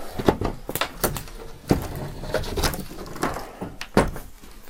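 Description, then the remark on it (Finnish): An old wooden door of a house with collapsed steps, its big padlock hanging loose on a chain, creaks open in a drawn-out series of uneven, scraping groans and clicks lasting several seconds, with no voices. “Ja ovi aukeaa.”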